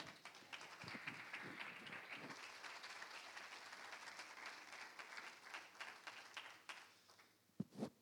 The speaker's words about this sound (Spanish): ¿Cuántos dan un aplauso al Señor?